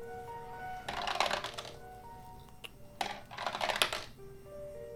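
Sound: physical dice being rolled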